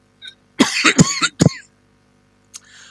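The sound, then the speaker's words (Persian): A cluster of several harsh coughs in quick succession, followed by one more separate cough and a faint rasp. No one speaks. “خیلی سرفه میکنی بابا یه, یه کاریش بکن”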